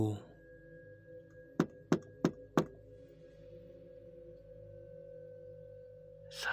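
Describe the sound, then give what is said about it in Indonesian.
A mother knocks four times on a bedroom door, sharp knocks in a quick, even rhythm, distinct against a low steady background hum, followed by several seconds of quiet. “Ibu saya ketuk pintu dengan nada suara yang menakutkan.”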